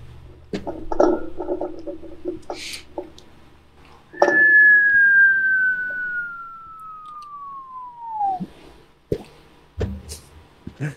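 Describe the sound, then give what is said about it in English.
A single clear, fairly loud whistle glides steadily downward in pitch for about four seconds, like a cartoon falling sound effect, with scattered clattering noises before and after. “take that sound effect, you know, the comical sound effect from like Wiley Coyote, where it's falling down”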